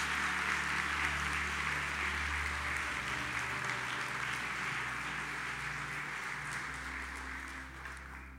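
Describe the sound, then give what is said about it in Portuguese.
A church audience applauds God during an evening sermon in a dense, steady wash of clapping that carries on for several seconds over a low, sustained keyboard drone, then eases off slightly at the end. “Será que você pode aplaudir a esse Deus?”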